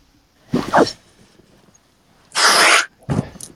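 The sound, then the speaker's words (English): Three breathy, whooshing vocal bursts imitate a monster's swing, with short pauses between them; the middle burst is the longest and loudest, and no words are spoken. “So, as you swing, make sure that it's the same kind of speed that your monster woods, Because sometimes monsters swing very fast, sometimes they're kind of slow.”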